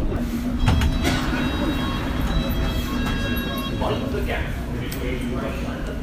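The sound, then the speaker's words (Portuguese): Steady low rumble of a London Underground train slowing as it stops at Wembley Park station, the stop for Wembley Stadium, with brakes whining faintly and doors sliding open, while a voice talks over the clatter. “Estou desembarcando aqui em Wembley Park, estação do Estádio Nacional”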